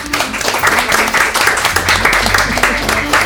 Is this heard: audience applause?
yes